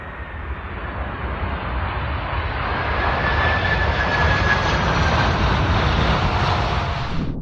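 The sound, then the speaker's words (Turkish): A cargo jet's engines roar steadily and loudly at full power for several seconds during a go-around before climbing to 4000 feet, a thin high whine riding over the broad rumble, with no voices. “Bu motorların sesini de duymak mümkün burada.”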